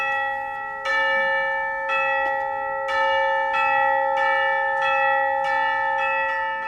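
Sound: bell ringing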